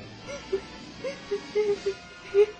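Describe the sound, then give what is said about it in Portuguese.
A young woman sobs in a series of short, catching whimpers, several broken cries spaced irregularly, fairly quiet, with no words spoken. “mas ao ver o rosto desfigurado do pai, não se conteve e começou a chorar.”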